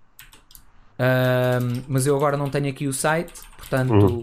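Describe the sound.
Soft, rapid clicking of keys on a computer keyboard for about a second, then a man starts talking and the typing fades under his voice.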